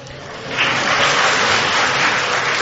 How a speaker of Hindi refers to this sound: इसमें ताली बजाओ कोई मना नहीं सीधी बात है